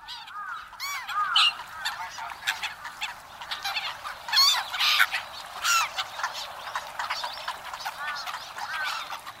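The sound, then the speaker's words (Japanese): A flock of black-headed gulls at Toneri Park in Tokyo, Japan, calling over and over, harsh overlapping squawks and cries that rise and fall continuously without pause, with no one speaking. “舎人公園（東京都）のユリカモメをお届けします。”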